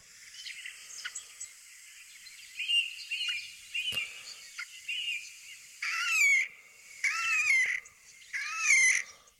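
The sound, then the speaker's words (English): Slavonian grebe calling: thin, high whistled notes at first, then three loud, squealing trilled bursts in quick succession, clear with no voices. “On top of that, we listen, we listen to the noise of the Slovenian group?”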